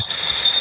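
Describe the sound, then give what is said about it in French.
A TGV high-speed train rushes along steadily, a thin, piercing whine riding over a broad roar of rail noise, continuous, with no voices. “qui aurait apprécié le TGV non fumeur.”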